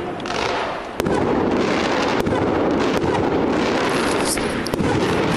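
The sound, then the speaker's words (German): Fireworks set off outside by Aue football fans to support their team crackle and bang in a dense, continuous barrage, with sharp louder reports at intervals over a steady roar of popping and a faint crowd murmur. “So, die Fans von Aue haben ein kleines Feuerwerk draußen aufgebaut, um ihre Mannschaft zu unterstützen.”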